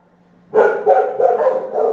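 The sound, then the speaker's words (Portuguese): After a brief quiet moment, a dog starts barking loudly at a home that keeps many dogs, a rapid run of four or five barks blending into one another with no pause. “É isso que dá ter um canil em casa, parabéns. 5 mil cachorro, mais os da rua.”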